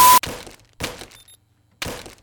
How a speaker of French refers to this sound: C'est le sixième téléphone que vous détruisez en deux semaines.